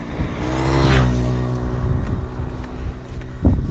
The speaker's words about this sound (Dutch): ja, dat heb je dan ook, hè? Grote brommers.